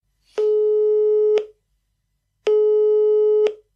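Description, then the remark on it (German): Two long, steady telephone ringback tones, each about a second, separated by a pause of roughly a second, with a clicky onset and offset. The pitch is mid and constant, and no one speaks. “Mein Name ist Alexander Augustin und ich rufe Karl-Heinz Kaas.”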